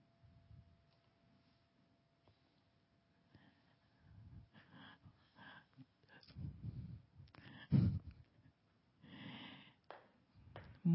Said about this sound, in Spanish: Vuelve a hacer una gran inhalación profunda, exhalando. Hacemos una tercera respiración profunda, inhalar hasta donde puedas, exhalas para abrir tus ojos y regresar al lugar donde te encuentras.